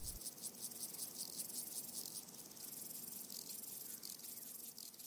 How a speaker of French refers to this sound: buzzing insects. des insectes qui bourdonnent. But oh, Mais comment tu enregistres un insecte qui bourdonne just record them. Tu l'enregistres, c'est tout.